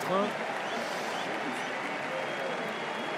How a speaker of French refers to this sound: Giroud qui est applaudi, qui est salué avec euh, l'entrée en jeu de Marcus Thuram. Pavard et Giroud qui laissent leur place. Ah, il prend le temps, hein. il savoure Olivier Giroud.